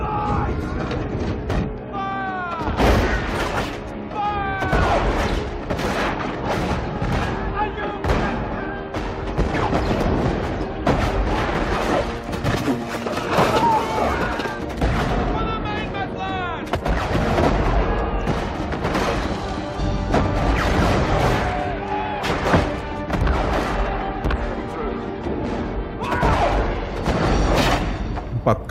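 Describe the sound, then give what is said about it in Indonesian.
Repeated cannon blasts boom through a dense, chaotic naval battle din as Demak kingdom warships fire cannons and fireballs at the hull and deck of a Portuguese warship in the bay, sharp bursts going off every second or two while shouting voices and clatter fill the background. “Kehadiran kapal itu segera dikepung dan ditenggelamkan oleh kapal-kapal kerajaan Demak yang mampu mengarahkan meriam dan bola api tepat di lambung dan geladak kapal.”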